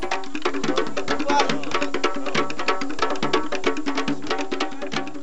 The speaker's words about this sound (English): That's the sound of the welcoming party at the entrance of Balama Village. Dancers and drummers welcome visitors who come to help.